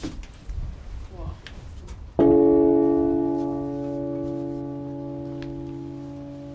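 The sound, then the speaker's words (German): A single heavy strike of the largest and heaviest bell ever housed in the Bamberg Cathedral towers, cast on site in 1311 by a Nuremberg bell founder, with a 170 kg clapper, after a quiet stretch of faint room noise, followed by a loud, deep, humming resonance that rings on and fades only slowly. “Es ist die größte und die schwerste Glocke, die die Bamberger Domtürme jemals beherbergt haben.”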